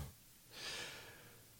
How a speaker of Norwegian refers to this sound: og jeg anbefaler jo folk å på en måte trekke pusten inn gjennom nesen. Mm. Og ut gjennom nesen. Mm. For jeg sier at man skal puste med nesen hvis man kan, da, selvfølgelig.